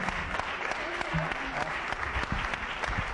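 An audience breaks into steady, dense applause as a prize for 25 years and 1,005 programmes is presented, many hands clapping together in a continuous wash of sound that holds at an even level for a few seconds, with faint voices mixed in.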